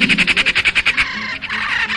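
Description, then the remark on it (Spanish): A small songbird calls: a rapid, even burst of about ten sharp chattering notes, then a harsher, continuous scolding call. It is loud and clear, with no talking. “se caracteriza por ser una ave cantora”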